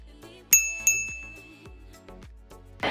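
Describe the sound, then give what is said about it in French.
Two bright, ringing bell dings close together, like a notification chime, each leaving a short shimmering tail over a soft musical background, followed by a few light plucked notes, accompanying a reminder to turn on a video channel's notification bell. “Au passage, n'oublie pas de t'abonner, de liker cette vidéo et activer la petite cloche si ce n'est pas encore fait.”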